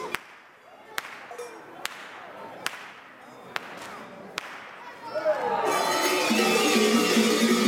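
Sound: whip cracking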